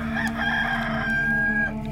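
A rooster crows once in a long, sustained call that holds a steady pitch before tapering off, loud, with no talking over it.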